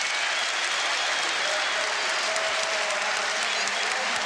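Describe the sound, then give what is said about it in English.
Steady, loud crowd applause from Tottenham fans after a superb Tottenham goal in a football match, a dense hiss of many hands clapping at once with no break or change in intensity. “He gets applause from his manager and the bench and from the Tottenham fans as well.”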